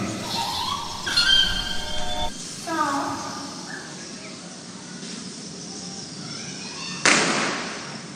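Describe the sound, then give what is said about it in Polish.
A single firecracker (a 'korsarz' banger) bursts with a sharp, loud crack near the end, its echo ringing and fading across the courtyard of a house, after several seconds of quieter tonal chirps and background murmur. “tym oto wybuchem petardy, tudzież korsarza, w dziedzińcu domu, w którym tu się znajduję, rozpoczniemy dzisiejszą chatę mistyka”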